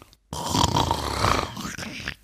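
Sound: imitated loud snoring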